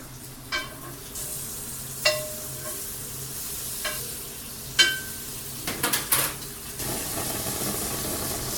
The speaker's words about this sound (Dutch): Ja, mooi pruttelen, hè? ja, dan moet je wel een beetje vuur onder zetten, anders wordt het niet wat.